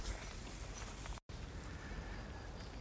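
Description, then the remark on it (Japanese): Steady rain that has just started after a sunny day, falling outdoors on the way to Tomioka Hachimangu shrine, a dense continuous hiss of drops with a brief dropout partway through, no voices heard. “日中は晴れたんですけど今はあいにくの雨ですね降ってきた”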